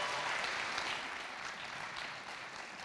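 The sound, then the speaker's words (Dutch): Steady applause from an audience fills the whole moment, a dense wash of many hands clapping at a fairly even level with no voices standing out. “Heel groot applaus voor”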